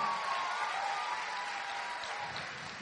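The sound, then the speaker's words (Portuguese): Steady applause from a church audience clapping for Jesus, a dense, even wash of many hands clapping that holds at a constant level for a few seconds, with faint whistle-like tones threading through. “Você pode aplaudir a Jesus agora?”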